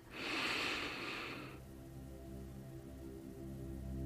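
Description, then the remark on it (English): A fairly loud inhale drawn in through the nose for about a second and a half during a guided breathing meditation, then fading into a soft, steady musical drone with no one speaking. “So get yourself into a nice, comfortable position and begin with some deep breathing.”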